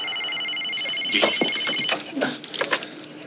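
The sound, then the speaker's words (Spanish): A Soviet missile warning alarm: a steady, high-pitched electronic tone holds for about two seconds, then fades as indistinct voices and clatter take over. “Alarma de misiles soviéticos.”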